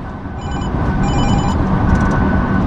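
A phone rings with an incoming call, bright, repeating electronic trills in short bursts, heard over a steady low rumble inside a car that is being driven, moderately loud.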